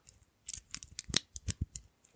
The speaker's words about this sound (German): ist eine Uhr, beziehungsweise eine Armbanduhr, wo ich den Verschluss zu mache. War ja ganz klar zu hören, würde ich mal sagen.